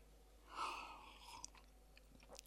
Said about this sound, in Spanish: Un sorbo de vino, un sorbo devuelto.